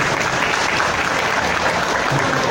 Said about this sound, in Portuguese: Salve de palmas